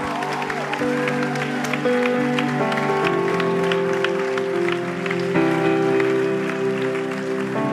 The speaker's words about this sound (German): Wow, können wir mal Jesus Applaus geben? Jemand hat da Sprachgebet empfangen.